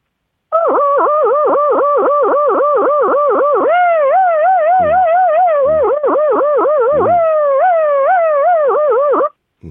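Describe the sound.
A person vocally imitates a 112 police siren, as of a car on emergency dispatch controlling traffic: a loud, continuous warble that switches between a fast, rapid yelp and a slower wavering wail over about nine seconds, with no other sounds.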